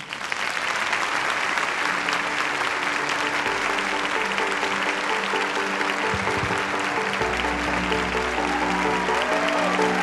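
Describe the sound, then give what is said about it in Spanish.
A sustained burst of audience applause welcoming a speaker onto the stage at the Teatro Municipal de Las Condes in Santiago, Chile, dense and steady clapping from many hands at a constant loud level for the full ten seconds, with a faint low musical tone underneath. “Por favor, un gran aplauso.”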